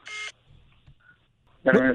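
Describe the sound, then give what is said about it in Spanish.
A short, bright electronic keypad tone sounds from a phone as a call is put on hold, followed by a quiet pause with a faint brief beep, and then a person starts talking. “Oye, no ojalá el teléfono, le puse en pausa y todo se escucha.”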